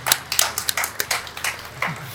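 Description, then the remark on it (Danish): A small group claps in brief, scattered applause: a quick, uneven run of sharp hand claps at moderate volume, with no one speaking. “Der kommer klapsælder ja.”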